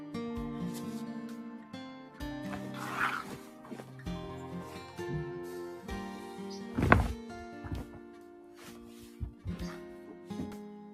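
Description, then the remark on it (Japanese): Summer clothes, including fluffy skirts rolled up, being folded, with scattered rattling clatters and soft thumps, one sharper knock standing out, all over steady background music with no one talking. “夏服を畳んでる音でございます。”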